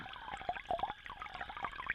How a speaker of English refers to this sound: Instead, you see clear water dripping down its surface, bubbling from the top.